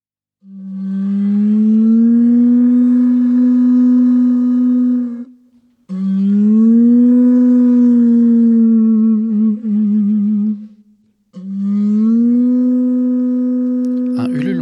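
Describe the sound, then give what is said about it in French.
Three long, loud blasts on a conch shell horn, blown by the trumpeter on duty to announce that the meal is ready, each a steady low tone with a slight wobble and rising start, separated by brief pauses; the last blast ends with a rough crackle. “Ce bruit de conque, plus ou moins hésitant, selon les talents de la trompettiste de service, évoque toujours à Jeanne les d'agonie d'un animal mythique.”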